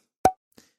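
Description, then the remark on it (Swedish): A single short, bright blip sound effect illustrating a car crossing the finish line, with a quick pitched ping that decays fast, followed half a second later by a much fainter, softer tick. No voices. “Om vi skulle låta, alltså när en bil passerar mållinjen så tänkte vi kunde låta det illustreras som ett litet, liten ljudeffekt, en liten blip.”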